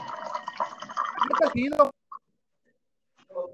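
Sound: water being poured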